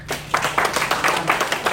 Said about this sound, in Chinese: 很棒，来给自己掌声。